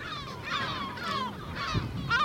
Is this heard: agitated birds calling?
yes